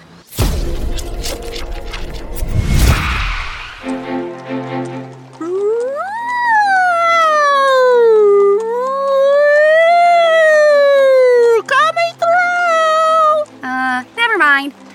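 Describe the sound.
A person imitates a fire truck siren with loud, wavering vocal wails that rise and fall over several seconds, then break into a few short choppy bursts, following an opening rush of rumbling noise.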